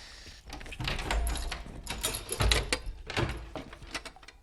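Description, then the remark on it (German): An old wooden door that does not fit perfectly in its hinges is opened, with rough scraping and rattling across several seconds, punctuated by a few dull low thumps as it shifts and catches. “Außerdem passt die Tür nicht hundertprozentig in die Angel.”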